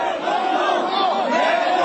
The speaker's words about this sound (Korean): 2008년 6월 10일 서울 광화문 촛불 집회 당시 촛불 집회 정운천 농림부 장관이 갑자기 나타났습니다. 시민들과 직접 대화하고 싶다며 집회 주최 측의 거부 의사도 무시한 채 나선 겁니다. 이내 야유가 쏟아집니다.